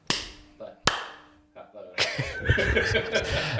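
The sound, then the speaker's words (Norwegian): Two sharp hand claps ring out about a second apart, each with a brief echoing tail, followed by a third softer tap before laughter and chatter break out. “OK, så skal jeg klappe.”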